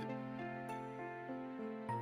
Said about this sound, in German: Das Geräusch, was du gerade gehört hast, war der Sensor in der Küche, der sich beschwert hat. Hat er, der macht ein Geräusch? Ach so, das ja. ist das Handygeräusch, meinst du?